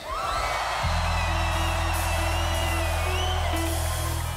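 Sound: crowd screaming and cheering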